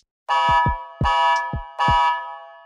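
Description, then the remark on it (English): A loud, brassy battleship horn blares in three overlapping blasts with no break between them, while deep booming thumps drop in pitch underneath. No one speaks. “Here we go a dog, a battleship,”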